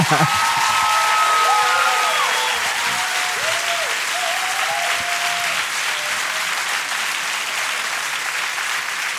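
An audience breaks into loud, steady applause that sustains for about nine seconds, with a few high calls or whistles rising over the clapping in the first half.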